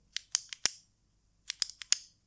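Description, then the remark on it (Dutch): Two quick bursts of four sharp, crisp clicks each, separated by a brief pause, a ballpoint pen being clicked repeatedly, with no talking. “Met je pen lopen klikken ik heb dat ook echt gewoon aan moeten leren om bijvoorbeeld geen pen in mijn handen te nemen tijdens het opnemen van mijn podcastaflevering.”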